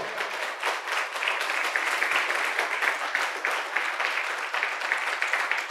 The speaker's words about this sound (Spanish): Dele fuerte ese aplauso al Señor.